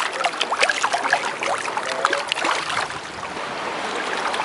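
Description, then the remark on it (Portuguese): Fish splashing and slurping at the water surface as they feed on food put in by a person standing in the water, with many small, irregular splashes and wet slaps in quick succession, steady and fairly loud, with no voices. “olha os barulhinhos deles.”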